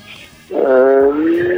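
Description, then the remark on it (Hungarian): Loud traffic noise: a vehicle's droning engine surges in suddenly after a quieter moment and holds as a steady, tonal hum to the end. “ó, nagy itt az autóza.”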